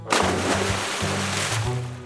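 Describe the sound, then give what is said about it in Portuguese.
A duck takes its morning dive and splashes in lake water: a loud, steady rush of sloshing water with a few surging bursts, lasting about two seconds with no voices. “Gené tomou café da manhã, escovou os dentes e deu seu mergulho matinal no lago.”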